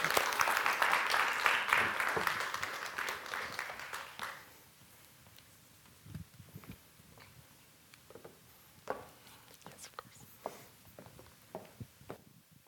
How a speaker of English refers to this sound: So round of applause.